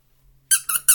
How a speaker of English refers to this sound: Squeaky squirrel. This would be a great present for my dog, right?